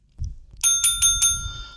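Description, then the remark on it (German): A bicycle-style bell, rung by a mediator, rings four times in quick succession, bright, its metallic tone lingering after the last strike over a soft low rumble. “Deswegen gibt es heute einen Mediator. Der hat eine Klingel.”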